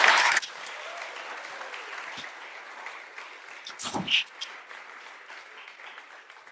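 An audience claps steadily, a dense wash of many hands that starts with a louder burst and continues at an even level, with a few sharper claps and a brief swell near the end.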